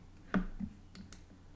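A few sharp, quiet mouse clicks close by: one firmer click, a soft tap after it, then two faint quick clicks a moment later, with no talking.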